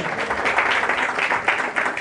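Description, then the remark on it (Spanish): A church audience applauds God after a prayer, a dense, steady wash of many hands clapping with bright, crackling texture and no one speaking over it. “Le damos otro aplauso a Él.”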